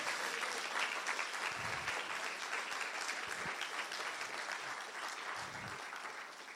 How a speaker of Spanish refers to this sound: Dale un aplauso fuerte al Espíritu de Dios.